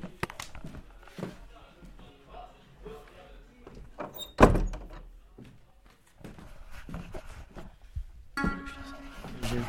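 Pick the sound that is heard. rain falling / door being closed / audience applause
door being closed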